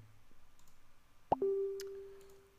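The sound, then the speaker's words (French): A single short Facebook notification chime: a quick pop followed by a steady electronic tone that holds and slowly fades. It is clear, with no one talking over it. “J'ai désactivé le bruit sur Facebook, mais pourtant, on l'entend toujours.”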